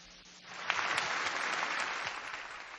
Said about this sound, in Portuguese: Vamos ouvindo aí os aplausos, né?